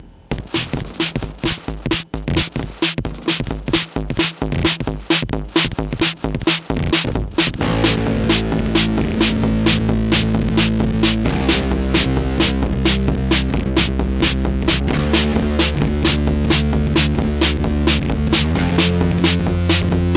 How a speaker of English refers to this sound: I'm going to fire a gate into the in on the C- the CV in on the four band distortion, and you're going to hear it uh, turn the distortion on and off.